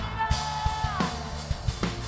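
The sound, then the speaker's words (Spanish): An audience member lets out a long, loud war-cry yell that holds and then drops in pitch, ringing with reverberation over steady thumping drum hits. “Alguien va a dar un grito de guerra.”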